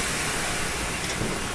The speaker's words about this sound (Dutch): En nou ja, we zijn dus nu bezig. U hoort het aan het slurpende geluiden op de achtergrond. Ja, maar ik zie zo'n grote betonslurf. het Gaat uit zijn raam hangen.